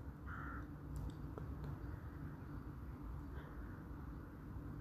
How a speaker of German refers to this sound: Die Krähen sind dabei, in ihr Nachtquartier zu fliegen.